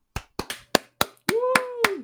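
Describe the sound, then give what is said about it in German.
Several sharp hand claps in a steady rhythm, about one every quarter second, and partway through a voice joins in with a long sustained cheer as the clapping continues. “An dieser Stelle kann man auch mal klatschen.”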